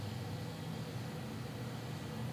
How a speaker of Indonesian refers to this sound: Aku mendengar percakapan lama kita di antara deru mesin yang lalu lalang di jalan utama.